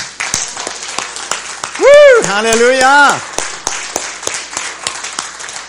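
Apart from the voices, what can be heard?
audience applauding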